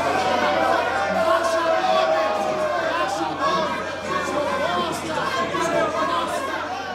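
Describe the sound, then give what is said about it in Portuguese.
A loud commotion in a room of many overlapping, agitated voices shouting and talking at once during a scuffle involving André Janones, sustained throughout with no single speaker standing out, recorded on a phone by a UOL cameraman. “algumas pessoas que estavam ali na sala pegaram o celular para gravar o tumulto, né?”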